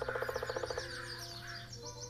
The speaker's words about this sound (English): And as Johnny is heading down the hill, the day is beautiful. The birds are singing their songs.